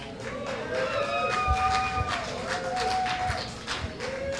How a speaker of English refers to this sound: Oh, yeah, that was like a slow clap.